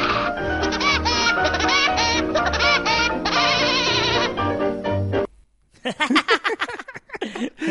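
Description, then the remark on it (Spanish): A cartoon woodpecker's laugh, a loud, rapid, staccato cackle of warbling high notes, bursts out near the end after a brief silence that follows a dense stretch of busy, bright sound. “Pero me parece brillante eh, poner pájaro loco al final.”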